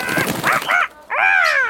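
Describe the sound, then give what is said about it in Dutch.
Loud, harsh squawking calls from a parrot with red, yellow, blue and green feathers, in two raspy bursts separated by a brief pause, the second call longer and rising, with no talking. “En aan wie konden we het beter vragen dan aan papegaaien? Papegaaien met rode, gele, blauwe en groene veren.”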